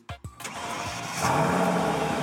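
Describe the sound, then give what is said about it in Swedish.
A car parked in a yard is started: two short cranks of the starter, then the motor catches and settles into a steady running rumble that grows slightly louder and rougher. No talking. “Nu så ska vi hoppa in i en bil som står parkerad här på gården.”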